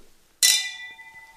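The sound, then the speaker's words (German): A single bright clink of wine glasses touching in a toast, with a clear ringing tone that lingers and slowly fades, fairly loud against a quiet background. “Dann äh, sage ich erstmal herzlich willkommen nochmal und zum Wohl.”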